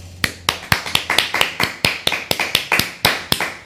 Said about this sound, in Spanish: Así que un fuerte aplauso nuevamente.